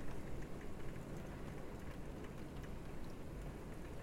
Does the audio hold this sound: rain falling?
yes